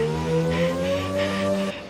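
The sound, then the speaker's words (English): A DeLorean car engine hums and revs steadily for about two seconds, its pitch rising slightly before cutting off abruptly, with no voices. “Out of a DeLorean?”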